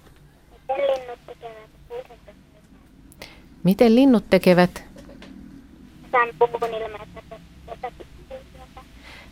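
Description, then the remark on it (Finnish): A seven-year-old girl caller from Järvenpää speaks through a thin, band-limited telephone line, muffled, in short phrases, with a louder, fuller voice briefly speaking in between. “Meillä on vähän huono tämä linja, ei kuulu niin hyvin, eli sanotko vielä, niin mä kuulen paremmin.”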